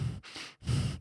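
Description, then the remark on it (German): A voice imitates the heavy, creepy breathing of an actor in the background of a Beelitz Heilstätten-inspired setting: two slow, drawn-out breath cycles, each a husky, breathy rush of air with a low rasp, moderately loud, no words spoken. “Oh, also da, da, ist wohl ein Schauspieler mit drin, der die ganze Zeit, du hörst ihn so im Hintergrund gucken, blicken, atmen.”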